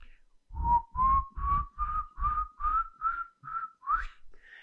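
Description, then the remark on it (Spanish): A person whistles, imitating the eerie whistle of the Silbón, a legendary ghost: about nine short, breathy notes rising slowly step by step, ending in a quick upward swoop, with no talking. “Y dice que el silbido es bastante particular. Porque el silbido, no sé, yo no sé silbar bien, pero el silbido es algo como esto.”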